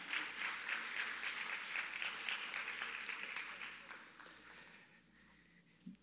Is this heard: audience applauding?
yes